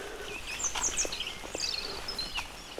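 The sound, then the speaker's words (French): Several birds chirp and twitter in short high bursts over a steady, hissing wash of light rain falling, with a few soft ticks and rustles underneath. “Les oiseaux gazouillent quand même, hein, malgré la pluie.”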